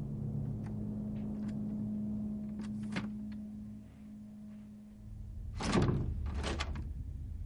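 A door knob in a dark house hallway is turned several times by a woman, giving faint clicks early on, then two louder rattling bursts toward the end, over a steady low hum. No one speaks.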